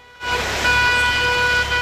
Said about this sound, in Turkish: Kentte bir protestoda okul servisi ve minibüs sürücülerinden geldi. 70'e yakın sürücü Mert'in fotoğraflarını araçlarına yapıştırdı. Korna çalarak Aydın ailesinin evine giden sürücüler aileye taziyelerini iletti.